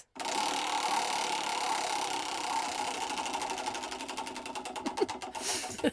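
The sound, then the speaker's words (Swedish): A prize wheel of anecdote topics spins with a rapid, loud ratcheting clatter that gradually slows into distinct, spaced-out clicks before coming to rest on a topic, with no voices. “Vi snurrar på anekdothjulet.”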